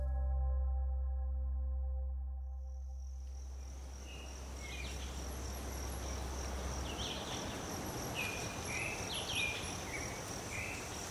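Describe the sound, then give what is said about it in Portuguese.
Ambience in the tree canopy of a preserved forest on the border of Rio de Janeiro and São Paulo states, Brazil, rises after a brief low drone fades: a steady high insect buzz over dense rustling hiss, with scattered short chirps. No voices. “Conheceremos a paisagem sonora que se escuta na copa de uma árvore.”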